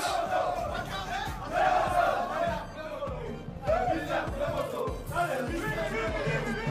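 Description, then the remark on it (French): The Equatorial Guinea team chants and shouts together at the stadium after winning a match, a loud, sustained, rhythmic celebration, with crowd noise and overlapping cheers rising and falling throughout. “En tout cas, on va les entendre, eux, quand ils arrivent au stade ou quand ils sortent et qu'ils ont gagné.”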